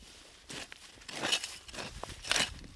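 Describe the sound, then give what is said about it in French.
A hoe scrapes and chops through dry soil as a farmer weeds his maize field, several uneven strokes, each a gritty crunching burst, with no talking. “Bon, oh, je suis en train de sarcler mon champ de maïs.”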